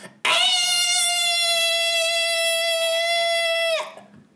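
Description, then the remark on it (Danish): A voice imitates screaming children with one loud, piercing shriek held at a steady high pitch for about three and a half seconds before cutting off abruptly. “ja, det er en tiende del af det, jeg har hørt fra skrigende fucking børn.”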